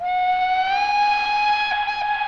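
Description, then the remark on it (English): A loud, steady train whistle blows for a couple of seconds as a train arrives, a bright, reedy tone whose pitch creeps slightly upward before it wavers near the end. No one speaks. “Train of Pascual is now arriving. Please allow all passengers to exit the train before boarding.”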